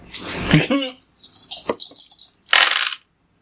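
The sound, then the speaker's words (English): Dice clatter and rattle across a hard surface in a quick series of sharp clicks, ending with a louder tumble before settling; a brief voice sounds near the start. “Go ahead and roll that.”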